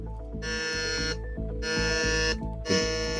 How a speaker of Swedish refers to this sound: Det där underbara ljudet är, eh, betyder att alla har tryckt in sig